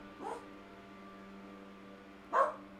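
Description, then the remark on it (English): A gardener mows the lawn right outside a window: the lawn mower drones steadily, a low, muffled engine hum that never lets up, with two short dog barks breaking through, one near the start and one near the end. “He's like right outside my window mowing the lawn.”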